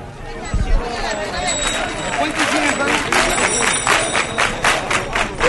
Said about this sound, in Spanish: Escuchamos cómo los peregrinos van animando con las palmas para que vayan los que van por delante a un paso más fuerte.